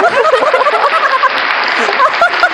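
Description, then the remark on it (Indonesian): Steady, dense hand clapping runs for a couple of seconds, a busy patter of many claps blended together, with scattered voices and chuckles mixed in underneath. “anjing tepuk tangan”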